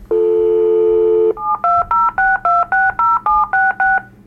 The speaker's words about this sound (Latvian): Telefonā atskanēja pīkstens un saraustīts signāls. Tad viņš piezvanīja vēlreiz.